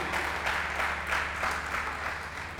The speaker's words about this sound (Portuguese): Dá um aplauso aí.